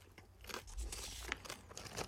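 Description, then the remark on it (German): Crunching popcorn: a dense run of crisp, irregular crackles and crunches, steady and fairly quiet throughout, with no one speaking. “Hat die Menschheit vielleicht einen Vorteil im Kampf ums Dasein, allein dadurch, dass sie das Feuer entdeckt hat und durch Zuführung von Hitze Maiskörner aufpoppen lassen kann?”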